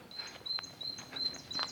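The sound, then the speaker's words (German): Birds chirping outdoors in the morning along a hiking path, one perched in a tree and others flying around, in quick, high-pitched twitters, a steady stream of short calls repeating every fraction of a second, fairly faint, with no one talking. “Dieses Gezwitscher. Herrlich.”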